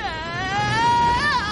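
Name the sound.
a scream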